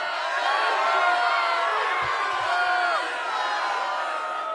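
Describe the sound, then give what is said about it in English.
A large crowd boos loudly and steadily, a dense wash of many jeering voices with a few rising shouts, sustained for several seconds without letting up. “you get booed.”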